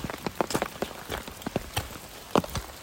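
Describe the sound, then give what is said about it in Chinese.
Raindrops patter irregularly on an umbrella held by someone walking in the rain, a scatter of sharp, bright taps with a few louder drops standing out over a soft, steady wash of rain. “大家听到我的雨声的滴滴答答是在我的那个雨伞上头。”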